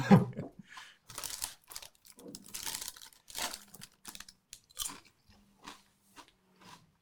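crunchy chewing

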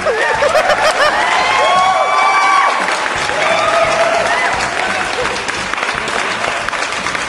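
applause

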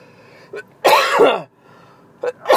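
coughing

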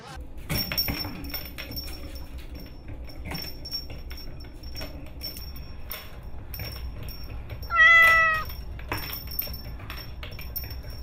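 cat meowing

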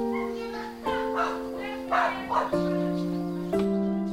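dog barking in greeting

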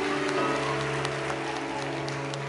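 audience applause

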